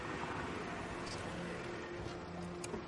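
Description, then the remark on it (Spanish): A minivan engine rumbles steadily at low speed, fairly loud, with a constant hum and wash of background noise as it pulls in, slows and parks at a dock. “Mónica aparca su monovolumen en el muelle.”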